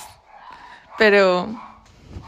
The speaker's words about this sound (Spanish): Y bueno, no sé si escuchan a mis perros atrás,